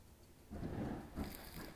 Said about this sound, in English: Ooh. It's thundering.